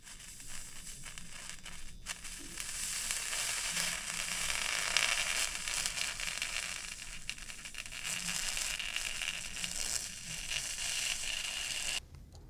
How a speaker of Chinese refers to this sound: 第五个是玻璃镶嵌玻璃焊接的声音。